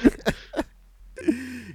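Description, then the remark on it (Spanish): A voice imitates a stifled cough: three quick, muffled throaty bursts, a brief pause, then a strained, closed-mouth groan as if swallowing saliva to hold back the cough. Fairly quiet. “como tosiendo así como. No, sin toser. como, tragando saliva, así como agarra, así como.”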